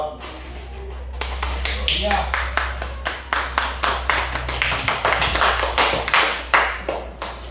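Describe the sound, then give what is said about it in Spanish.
An audience claps for Jesus in a steady, rhythmic beat, roughly two or three sharp claps per second, growing fuller after a brief start, with voices and a low hum underneath. “Palmas a Jesús, hermanos.”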